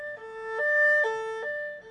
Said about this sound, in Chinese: 五一五一五一嘿，这叫救火车的五一哦嘿。